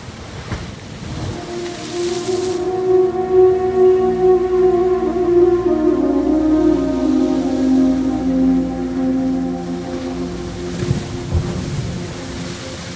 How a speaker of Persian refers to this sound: دریا دوباره طوفانی شده بود اما هنگامی که چشمانش را باز می کند هیچ چیزی جز آسمان بالای سرش و موجهای دریا در اطراف خود نمی بیند